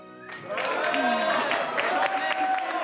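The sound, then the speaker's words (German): A crowd in a throne room cheers and claps steadily, a dense wash of many overlapping voices and applause that swells after a brief quieter start and stays loud throughout. “Nur Berthold hatte im allgemeinen Jubel bemerkt, dass Rudolf sich klammheimlich aus dem Thronsaal schlich.”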